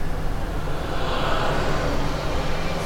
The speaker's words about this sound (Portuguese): Eu vi o avião também. Caralho, o avião.